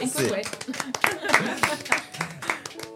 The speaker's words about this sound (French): Alors, bravo, on applaudit vraiment.